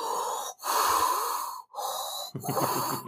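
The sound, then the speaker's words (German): A voice imitates heavy, rasping breathing: three long, loud, hissing breaths in a steady rhythm, each separated by a brief pause, with no talking. “Wenn ich irgendwie anfange, stark zu schnaufen, so”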